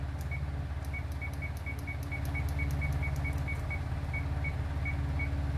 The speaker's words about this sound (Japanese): 福田汁さんによりますと20分弱火ですって20分にタイマーかけとこうね